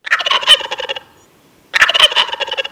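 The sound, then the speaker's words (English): Two loud, rapid rattling turkey gobbles, each about a second long, separated by a brief pause, with no talking. “In the UK, the bird flu has heavily affected supplies of free-range turkeys, 放山火鸡.”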